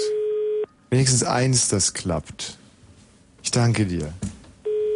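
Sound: telephone tones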